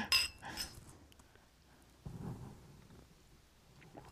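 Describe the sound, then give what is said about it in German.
Glasses clink together in a toast in a bookshop, a quick pair of bright, ringing taps, followed by quiet room noise and a soft low bump. “Prost erstmal.”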